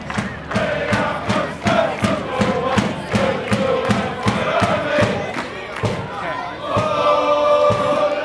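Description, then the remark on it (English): A crowd of Limerick football fans, including the Blue Army fan group, roars and chants in the club's stadium. Loud, steady rhythmic claps or drum beats drive it, before the massed voices swell into a sustained sung chant near the end. “And though not the biggest in the city, it can claim to be the noisiest stadium.”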